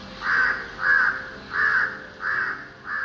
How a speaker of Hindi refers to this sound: जी हाँ दोस्तों मेरा दोस्त माने ये काला कौआ जिसे मैं द फ्लॉलेस क्रो भी कहता हूं because he is just perfect